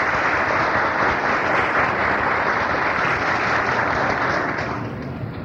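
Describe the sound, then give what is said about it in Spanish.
Sustained applause from a Veracruz audience at a Gnostic Association event, given for Professor Alfonso Valencia Ríos, news chief of the newspaper El Dictamen: a dense, even wash of many hands clapping loudly for several seconds before tapering slightly at the end. “También para él pedimos un gran aplauso.”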